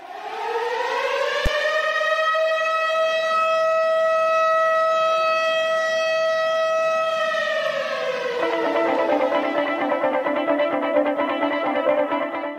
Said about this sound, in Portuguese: Então toca a sirene de Chernobyl aí. Toca aí e vambora pros spoilers.